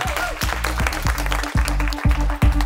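audience applause

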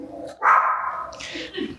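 dog barking

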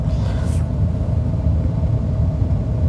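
car driving

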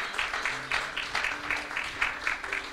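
audience applauding

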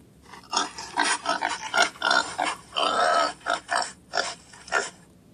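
pig grunting and oinking

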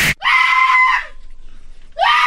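person screaming

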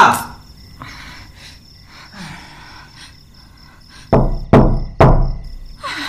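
knocking on a door

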